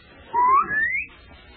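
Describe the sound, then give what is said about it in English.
A person whistles a short rising tune, two sustained notes gliding upward, clear against a quiet background with no talking. “sort of getting my pitch there, that whistle.”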